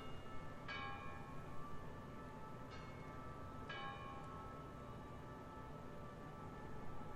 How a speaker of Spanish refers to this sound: ¿Las campanas?